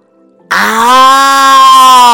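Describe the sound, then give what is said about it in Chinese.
A loud, sustained roar voiced by a person imitating a lion, starting abruptly after a brief quiet moment and holding a steady, strained tone to the end. “话音刚落，他就听到一声大吼”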